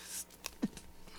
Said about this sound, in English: bless you, bless you.